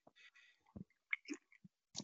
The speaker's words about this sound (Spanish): Lo que pasa es que yo voy a beber el primer trago de whisky